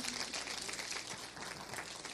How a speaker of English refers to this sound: Come on, that's another chance for a Jesus clap. Amen.